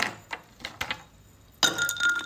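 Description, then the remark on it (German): Ice cubes are dropped into a water glass to show the water level rising: a few sharp clinks in quick succession, then a bright, ringing splash and clatter that lingers briefly. No one speaks. “Lasse ich nun diese Eiswürfel in ein Wasserglas fallen, wird der Pegel steigen.”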